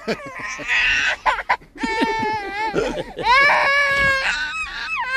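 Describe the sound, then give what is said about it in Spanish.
A baby wails loudly and continuously for several seconds, rising and falling cries with brief gasping breaths between them, intense. “El parto verde se da mucho entre la comunidad marciana, entre los bebés de Marte.”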